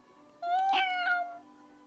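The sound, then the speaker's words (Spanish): A single drawn-out meow from Karpov the cat, clear, lasting about a second with a slight rise and fall in pitch, heard on its own against a quiet background. “Karpov maulló.”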